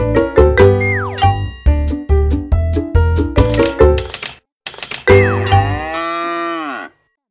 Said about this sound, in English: Farmer Brown has a problem. His cows like to type. All day long he hears click, clack, moo clack, moo. Clickety clack, moo.